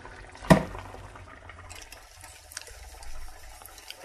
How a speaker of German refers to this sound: Noch ein klein bisschen Öl.